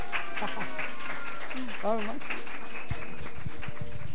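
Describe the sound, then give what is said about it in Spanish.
A church audience applauds a group of girls after their armor of God costume presentation. A steady wash of clapping runs the whole time, mixed with scattered voices and a few brief cheers rising above it. “Un aplauso para este grupo.”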